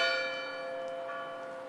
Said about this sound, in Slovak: Hodiny odbili 9 a Bob nikde.